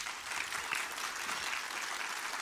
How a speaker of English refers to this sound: So if you'd applauded one another, it would encourage them.